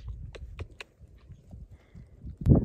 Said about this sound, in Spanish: ¿Tú vas a ser mi caballo? Qué bonito Chabelo. Qué hermoso Chabelito. ¿Mm? Vamos a caminar, bonito.